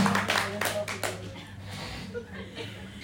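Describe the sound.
An audience at a church breaks into applause for a woman who returned to the church, a dense burst of clapping that is loud at first and then thins out over a few seconds, with faint chuckles and murmuring voices underneath.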